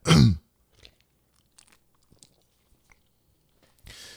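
A last sip from a drink: a short loud slurp, then faint wet swallowing clicks in near silence, ending with a soft breathy exhale.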